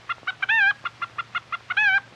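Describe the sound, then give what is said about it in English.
A hen clucks up close in a quick, steady run of short, bright clucks, broken twice by longer wavering squawks, with no talking and only a faint low hum beneath. “now, old hen, say, we better be getting together on this thing around here now.”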